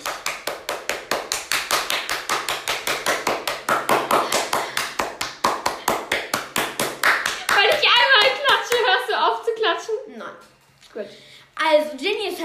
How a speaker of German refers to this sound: Und jetzt ein großer Applaus für Jenny.